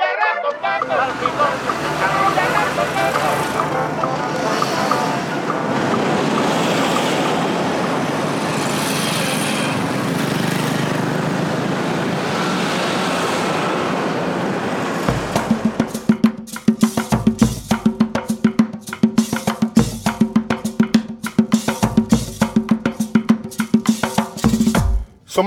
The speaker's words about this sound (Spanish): ahora nos conducen al norte centro histórico de Barranquilla, guiados por los tambores y el millo que a lo lejos se aprecian y marcan la llegada a uno de los barrios más emblemáticos